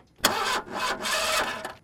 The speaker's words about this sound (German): geht das halbe Auto nicht an. Die Batterie war leer